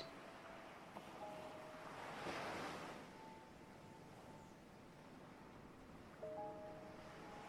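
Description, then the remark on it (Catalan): Ocean surf washes steadily, with one wave swelling and breaking around the middle, while faint sustained tones hum softly beneath the continuous rush of water. No one speaks. “Et vas deixant portar per les onades”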